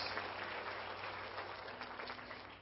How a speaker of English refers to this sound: Can you give the Lord an applause here in Jesus' name? Everybody, everybody do it. Everybody do it. Yes.